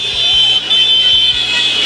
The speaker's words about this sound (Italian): Ecco, noi non siamo sul lungomare, ma siamo a Piazza Municipio. Vedete i caroselli di auto e moto. Sì. Questo è il, l'entusiasmo dei tifosi napoletani che stanno festeggiando la conquista della Coppa Italia